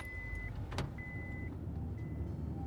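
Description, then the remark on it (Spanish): A car sound effect: steady low engine rumble throughout, with a repeating high tonal beep in evenly spaced pulses and a brief whoosh near the start, no voices. “Después del zoológico, Lucas se subió al carro con sus padres.”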